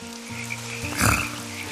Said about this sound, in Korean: 개구리 우는 소리가 적당히 얹어져서 들려오는데 묘하게 평온해지면서 마음이 한결 좋아지더라고요. 그날은 그 ASMR 같은 자연의 소리가 저를 위로해줬네요.